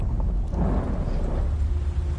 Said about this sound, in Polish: Jakieś grzmoty, kurczę, co to się dzieje?